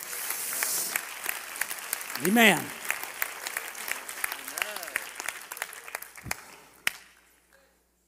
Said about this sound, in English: Come on, clap your hands to the Lord right now.